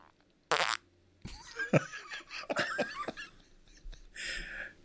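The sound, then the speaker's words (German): A voice imitates a fart with a sharp burst followed by a longer, sputtering, wet-sounding blurt, loud, ending in a short whistly buzz. “spätestens jetzt haben wir von den zehn, die wir erreichen wollen, auf jeden Fall vier bis fünf Furzfetischisten dabei.”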